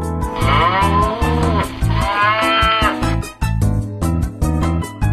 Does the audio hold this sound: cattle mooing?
yes